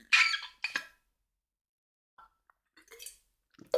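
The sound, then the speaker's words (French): A wet slurp as someone sips a drink, followed by quiet mouth clicks and a soft swallow, with no talking. “Alors, je bois une gorgée.”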